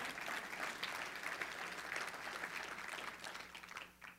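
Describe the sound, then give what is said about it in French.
An audience breaks into steady applause, a dense wash of many hands clapping at an even level for several seconds before it thins and fades out at the end. “Là, vous avez le droit d'applaudir.”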